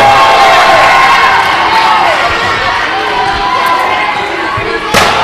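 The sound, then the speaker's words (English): A steel chair smacks against wrestler AJ's back as Rhino hits him, one sharp, loud crack near the end, cutting through a steady roar of a cheering arena crowd. “Rhino just smacking AJ in the back with a chair.”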